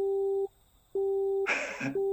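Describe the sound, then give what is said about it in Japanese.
A telephone busy tone from a public phone box, after a call to the 119 emergency number was cut off when the time ran out. It repeats in steady on-off pulses of a single mid-pitched hum, clear, briefly overlapped by a short burst of hissy, rustling noise before the beeping resumes. “時間がオーバーしたらしい、絶妙なタイミング、あ、微妙なタイミングで電話切れてしまった。”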